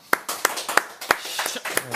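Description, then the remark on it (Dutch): An audience applauds to welcome a guest: a dense burst of many hands clapping, with sharp, irregular claps standing out over a steady wash, moderately loud throughout. “Dames en heren, mag ik de handjes op elkaar voor”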